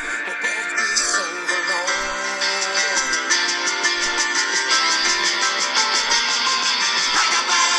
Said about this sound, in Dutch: Hoorde je dat? Die piano? Die piano.